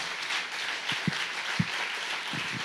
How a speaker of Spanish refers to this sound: Ay, ay, ay, si ese aplauso, si es para Dios.